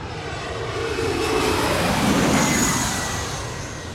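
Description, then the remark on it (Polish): An airplane passes low overhead, its broad engine roar swelling steadily to a peak mid-clip and then beginning to fade, with a faint high whine riding on top. No one speaks. “I to jest właśnie ten cały urok tutaj tego miejsca, że te samoloty przelatują nad głowami co chwilę.”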